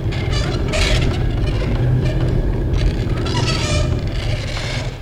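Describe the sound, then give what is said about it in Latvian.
Heavy millstones in a mill grind grain as someone grinds upstairs, in a steady, loud rumble that fills the whole mill, with a deep low drone and intermittent higher scraping and creaking layered on top. “Tad, kad kāds man te augšā maļ, tad visas dzirnavas rīp.”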